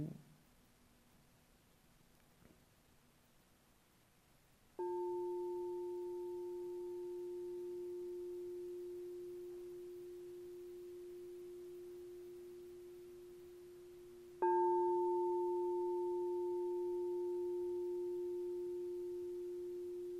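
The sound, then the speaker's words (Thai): A bell is struck twice during a guided meditation, about ten seconds apart, each strike ringing out in a clear, steady tone that slowly fades, as a cue for attention on the touch point called B4. It is fairly loud, with no voices. “เพื่อทำการทดสอบการตั้งอยู่ต่อจุดสัมผัสที่เรียกว่า B4 เสียงะระฆังจะไปต้องสัมผัสณจุดนั้น”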